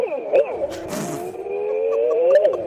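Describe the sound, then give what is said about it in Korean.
A voice imitates a daegeum, a Korean traditional bamboo flute, holding one long, breathy tone that bends and wavers in pitch, with a brief airy hiss early on, loud throughout. “예, 일단 대금 지금 저 국악기 예, 맞습니다.”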